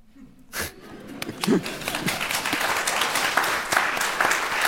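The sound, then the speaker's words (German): An audience breaks into applause, the clapping starting sparse and quickly building into a dense, steady wash of hands that stays loud to the end. “Und er hat es geschafft, all die Jahre, das ist auch der Applaus für euch, für eure Beziehung”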